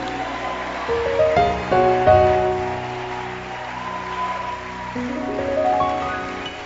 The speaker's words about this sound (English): Let your hand clap be louder.